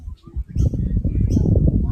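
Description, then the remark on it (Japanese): Birds chirp in short, scattered bursts high above a steady, loud low rumble of outdoor ambience in a park with jacaranda trees in full purple bloom on a fine, sunny day, with no one speaking. “鳥の鳴き声が聞こえてます。”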